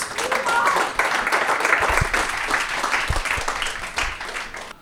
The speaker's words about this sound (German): Und ich bitte um einen herzlichen Applaus für den dritten Gast heute.